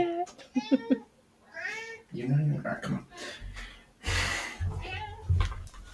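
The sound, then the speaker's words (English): A cat meows loudly and insistently several times, its drawn-out yowls overlapping with a person talking to it and some thumping noises. “My cat is like flipping out yep.”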